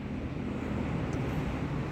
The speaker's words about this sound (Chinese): 我现在就在火车站，大林火车站，就在嘉义大林火车站旁边录音。这里有一个小小的公园，没什么人，呃，算是幽静吧，但是也不算幽静，因为旁边有车，然后另外一边又有又有火车。